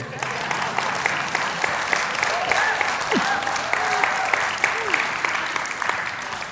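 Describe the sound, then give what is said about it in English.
A crowd claps steadily throughout, a dense wash of many overlapping hand claps at an even loudness, with a few faint whoops or voices rising briefly through the applause. “You should clap there.”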